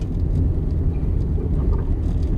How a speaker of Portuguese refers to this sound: Já o episódio de hoje começa em um carro, a caminho de Olinda, numa tarde de novembro de 2021.